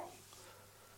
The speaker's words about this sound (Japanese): で今窓の外からこの新宿の部屋のね窓の外から、えー、雨音が少し聞こえるかもしれないけども